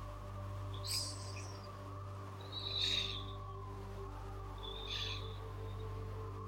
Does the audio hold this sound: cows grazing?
no